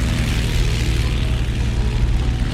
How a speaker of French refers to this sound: Le 29 décembre 1935, à 7h02, Antoine de Saint-Exupéry et son mécanicien André Prévost décollent du Bourget.